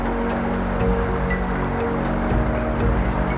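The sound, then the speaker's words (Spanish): Flowing river water rushes steadily and continuously, with a full low rumble and a hiss of spray, unbroken, with no voices. “Confías en el río, dejas que el río te lleve.”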